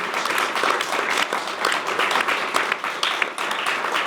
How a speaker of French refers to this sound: Voilà, donc euh, on peut applaudir encore euh,